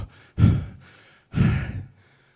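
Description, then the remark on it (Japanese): Two loud, heavy breaths, each a forceful rushing exhale about half a second long, separated by a short pause, with no talking around them. “激しい息遣いによるものなんだと聖書は言います。”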